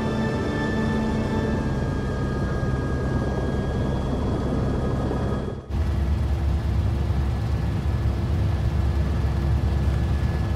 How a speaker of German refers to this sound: stiegen in den Helikopter und flogen davon.